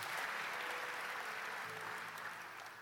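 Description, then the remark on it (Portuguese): A large crowd applauds for God, a dense wash of clapping from many hands that holds for a few seconds before easing slightly, with a faint low hum underneath. “Você pode dar um aplauso a esse Deus maravilhoso?”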